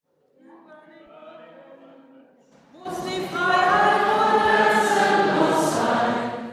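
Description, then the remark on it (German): Live piano improvisation by a pianist at a concert, spontaneously improvised on request from the audience, beginning with soft sustained chords that swell after a few seconds into a loud, dense passage of rich, ringing harmonies. “Spontane Improvisationen auf Zuruf aus dem Publikum. Das sei ihre Art, Geschichten am Klavier zu erzählen, so …, und das habe sie schon als zweijähriges Kind getan.”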